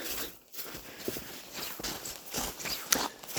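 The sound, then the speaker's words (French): Steady footsteps of someone taking a short after-dinner walk outdoors in cold weather, a brisk, even rhythm of crunchy steps at moderate volume, with no voices. “Pas pire, des fois, une petite marche après souper, ça fait toujours du bien.”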